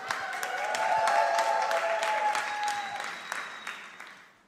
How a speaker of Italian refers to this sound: Applaudite mentre fa le scale. Incitate, incitate, forza, forza, forza.